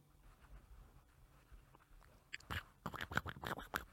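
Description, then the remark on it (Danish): Quiet underwater hiss gives way to a burst of irregular scratching and clicking as crabs and small creatures crawl over the hydrophones, growing busier and louder toward the end. “Man kunne høre på de her hydrofoner, kunne man pludselig høre sæler som gøde, og man kunne høre valer, der sang, og man kunne endda høre øh, krabstyr og alt muligt småkravl, som kravlede rundt på mikrofonerne.”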